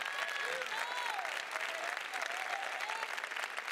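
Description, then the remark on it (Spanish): A crowd claps steadily and loudly throughout, a dense wash of applause with a few cheering voices rising and falling above it. “Si le va a dar el aplauso a tu papá,”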